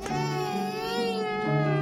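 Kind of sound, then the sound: human body sound, newborn baby crying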